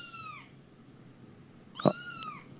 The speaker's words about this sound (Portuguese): É, você vai poder ver gatinhos como esse aqui, ó, que tá miando. Olha só o miadinho dele, ó.